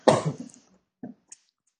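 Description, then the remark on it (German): A loud cough right into the microphone, a sharp burst followed by a brief rasping tail, then a softer short cough and a faint throat sound. “hustet an ans Mikrofon?”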